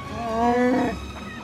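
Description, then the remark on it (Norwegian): Chewbacca's roar from the film Solo: A Star Wars Story: a single drawn-out growling, throaty howl with a rising then falling pitch, loud and alone, lasting about a second before fading. “Den musikken der og Chewbacca-lydene gjør jo at du automatisk trekkes inn i Star Wars-universet.”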